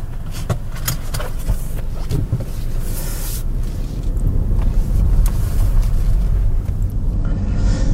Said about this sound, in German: Ich werfe den Boliden an. Und man hört gleich, oha, ein Dreizylinder. Ich lege die Fahrstufe mit dem neuen Schalterchen auf der Mittelkonsole ein und los geht's.